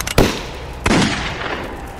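Two loud, sharp gunshots about a second apart, each followed by a long echoing tail that rolls off. No one speaks.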